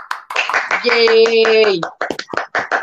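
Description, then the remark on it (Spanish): An audience breaks into lively applause for Ángel Verdugo while a voice holds a long sustained cheer over it, then the clapping thins into a few scattered bursts. “Entonces quiero darle un fuerte aplauso, aplauso a Ángel Verdugo.”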